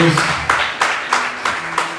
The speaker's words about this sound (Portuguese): E se você crê nisso, concorda com isso, aplaude Jesus de todo o teu coração.